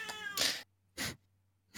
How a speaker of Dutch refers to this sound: Die kat. Hij is angry. Wat wil hij?